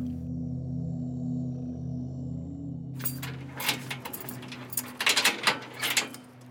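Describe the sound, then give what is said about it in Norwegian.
A low steady hum gives way to metallic jangling and clinking of keys, with several sharp clanks toward the end as locks turn and heavy security doors are worked while a tailor is locked in through the security doors of Pollsmoor prison. “Skredderen er kommet, han blir låst inn gjennom alle sikkerhetsdørene i Polsmore-fengselet.”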